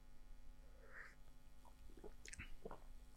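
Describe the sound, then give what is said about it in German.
Someone takes a quiet first sip of a drink after a toast, a few soft wet slurps and lip smacks over a low steady hum, with no talking. “Erstmal nippen.”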